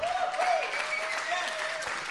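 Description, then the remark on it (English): A crowd applauds steadily at the end of a talk, a dense wash of clapping hands that stays fairly loud and even throughout, with a faint tonal hum lingering underneath. “Applause, please.”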